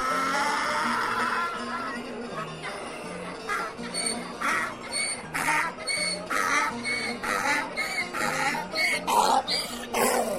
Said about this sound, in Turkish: Tam ağzını açacakmış ki daha ilk hecesinde eşek yine uzun uzun anırmış.